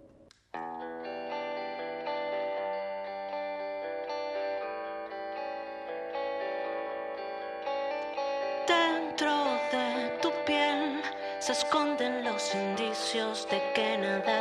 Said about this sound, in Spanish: Lo vamos a pasar nuevamente. Se llama … y suena así.